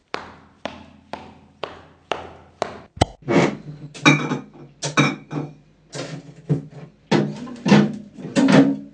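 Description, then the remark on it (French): Evenly spaced steps approach, then a door opens again with a sharp thud, followed by a stretch of clattering and rustling. “La porte s'ouvre à nouveau.”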